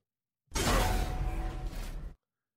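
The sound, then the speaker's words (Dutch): The shield sound effect of Kratos from the video game God of War: a loud, dense whooshing burst with a faint metallic ringing tone, lasting about a second and a half, starting and stopping abruptly with no voices. “Het komt uit God of War. We horen het schild van Kratos en de nieuwste game in die reeks komt uit op 9 november.”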